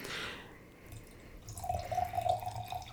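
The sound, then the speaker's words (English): A drink refill is poured into a glass, starting with a soft splash and settling into a steady gurgling pour whose pitch rises slightly as the glass fills. “you need a refill to understand the, the humor sure, behind I that.”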